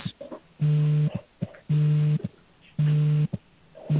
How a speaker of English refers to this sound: sounds like somebody's got an alarm going.